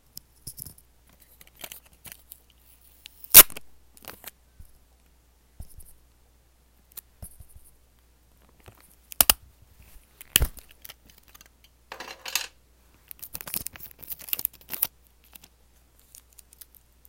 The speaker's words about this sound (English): Alright, next we're going to be doing some tape ASMR.